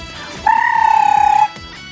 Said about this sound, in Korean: 호루라기 소리 다 준비됐습니다.